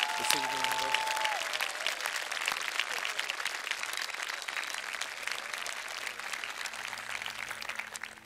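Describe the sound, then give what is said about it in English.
Sustained applause from a large audience at Cedarville University, applauding the faculty: a dense, steady clatter of many hands clapping at an even loudness for the whole stretch, with a brief tonal note at the start. “To those faculty members who are also just as tired and stressed out and weary as many of you students are, would you join me in applauding them and expressing your appreciation to the great faculty we have”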